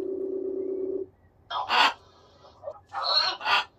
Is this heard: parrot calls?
yes